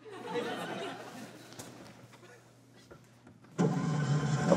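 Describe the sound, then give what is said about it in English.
An old car stuck on a hill: its engine cranks with a low, steady rumble, then abruptly catches and roars much louder in the final second, continuous. “And every time you try and start the car, we roll backwards.”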